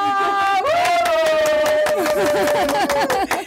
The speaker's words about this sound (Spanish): Mira, todos los chicos allá atrás en la cabina también están aplaudiendo.